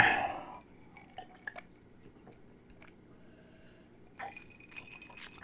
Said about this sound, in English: So let me take a big drink.